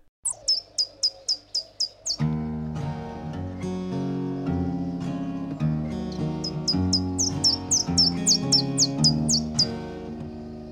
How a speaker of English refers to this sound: We'll once again hear the intro in stereo first, then again in mono with the louder tweeting relative to the main track, and then we'll move back into the stereo where you can hear it shift slightly over.